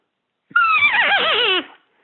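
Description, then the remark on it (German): A single loud whinny-like call, a person imitating the scream of a rival roe buck, sounding like a horse's whinny, wavering and quivering for about a second before fading. No talking. “Hört sich an wie das Wiehern vom Pferd.”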